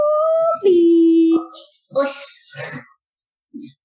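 A dog lets out a loud howl that drops in pitch and holds for about a second, then breaks into a few choppy whimpering whines before a brief, faint sound at the end.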